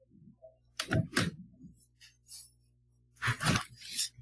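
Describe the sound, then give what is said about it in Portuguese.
A door is opened, with a couple of clattering, rattling bursts of handle and latch noise separated by a brief quieter pause. “Você só abrir a porta aqui.”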